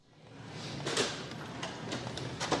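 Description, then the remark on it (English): The door of Alexander Elementary School being opened by Superintendent Will Hampton, with a few sharp clicks and rattles of the latch and handle over a steady background hiss. No one speaks. “Opening the door of Alexander Elementary School”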